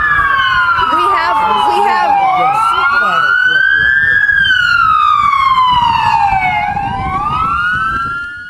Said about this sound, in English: This is a, uh, the chief of police here, …, but she's being drowned out by the sirens.